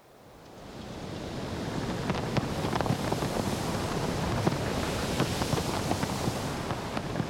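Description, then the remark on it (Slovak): Steady seaside wind roars across the microphone while waves wash in beneath it, fading up at the start and then holding a full, continuous rush with small crackles and splashes throughout. “Čo viedlo morský Vánok k tomu, aby zvýšil hlas na slnečník?”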